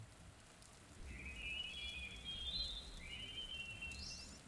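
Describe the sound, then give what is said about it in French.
Steady rain falls during a storm as a continuous hiss over a low rumble, while thin, high whistling tones drift in and out after the first second, with no one speaking. “Errante et idiote pendant un bref instant, ses larmes se mêlent à la pluie.”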